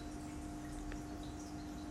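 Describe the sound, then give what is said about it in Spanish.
A steady, quiet trickle of aquarium water runs continuously with a faint low hum underneath and one soft drip-like blip partway through; no one speaks. “Te dejo con, con ese sonidito de agua de fondo que viene de la pecera.”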